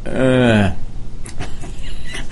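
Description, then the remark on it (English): A voice imitates a car failing to start after the key is put in and the button pushed, with a short, loud, droning whine that sags downward in pitch and cuts off, leaving faint background rustle. “I went to uh, move it to uh, uh, put it over near where there was an outlet next to the, the uh, from the hotel, and put the key in, push the button, and it went.”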